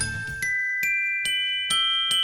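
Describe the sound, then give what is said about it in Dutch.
Bright Christmas bells ring out in a series of about six strikes at a steady pace, each chime lingering and overlapping the next, clear, with no voices. “Ja, dat ook, want kerst.”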